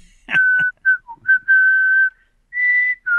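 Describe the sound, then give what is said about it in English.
A person whistles a short melody from a movie score, with sustained pure tones stepping between pitches, some notes held longer, fairly loud with brief gaps between phrases. “It's just such a good score in general.”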